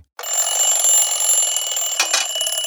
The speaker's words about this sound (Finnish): Mutta ei auta kääntää kylkeä, herätyskello soi.